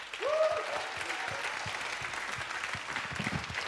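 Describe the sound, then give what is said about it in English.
An audience breaks into sustained applause as a praise offering to the Lord, a dense, steady wash of clapping that fills the room, with a brief raised voice or cheer rising at the start. “Let's give the Lord a praise offering.”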